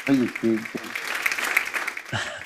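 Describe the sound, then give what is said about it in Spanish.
A short burst of fake crowd applause, a sound effect inserted into the audio: a dense, steady wash of clapping rises between a speaking voice at the start and another voice coming in at the end. “Quiero que reciban con aplausos falsos que voy a insertar en este audio a ….”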